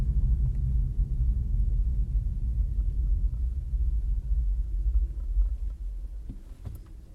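A steady low engine rumble hums continuously from inside a car, swelling slightly as it accelerates, with no voices over it.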